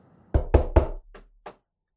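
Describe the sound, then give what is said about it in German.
Knocking on wood: three firm raps in quick succession, then two quieter, more spaced knocks trailing off, with no voices. “Ja, dann klopf mal auf Holz, Digga.”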